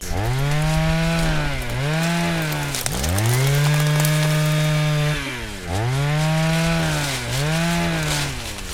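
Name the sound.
leaf blower running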